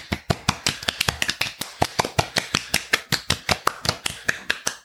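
Brisk, steady hand clapping, a quick run of sharp, crisp claps at a fairly even pace for about five seconds, with no voices over it.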